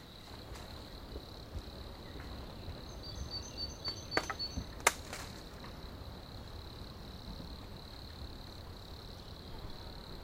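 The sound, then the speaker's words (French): Wood creaking and cracking inside a large tree trunk, with two sharp cracks and a few faint crackles over a steady high-pitched hum; quiet overall, with no voices. “c'est parfois même des petits bruits de laser un peu, tu vois, tu vois, et des, gros craquements, des, bruits à la fois sourds”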